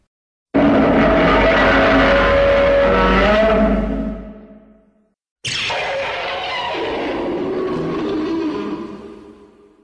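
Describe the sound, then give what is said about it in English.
Two loud, harsh creature roars in a row, each lasting several seconds with a raspy, pitched-up quality: a modified Godzilla roar that sounds pitched up and played backwards. The second begins with a sharp high shriek before settling into a rough, sustained growl. “It's just a really modified Godzilla roar.”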